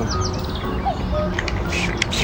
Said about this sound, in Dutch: Dat is een koekoek.